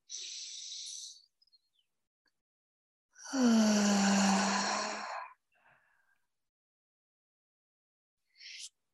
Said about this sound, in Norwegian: Pust inn gjennom nese. Hold, og pust ut med en åpen munn. Fortsett å puste i eget tempo inn gjennom nese.